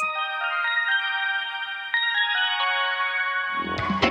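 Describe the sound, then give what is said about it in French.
A short electronic cue tone from the Parcours Énergie workout audio guide in Gaspé, signalling listeners to pause and go to the next station, plays alone: a bright, ringtone-like chime of layered sustained notes shifting pitch a few times, ending with a brief noisy burst. No one speaks. “Lorsque vous entendez cet indice,”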